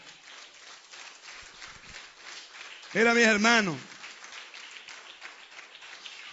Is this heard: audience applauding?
yes